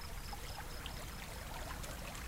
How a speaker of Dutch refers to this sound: Als de insecten en de vogels stil worden, dan horen wij mermeries, een klein riviertje.